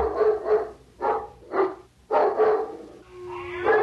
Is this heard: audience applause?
no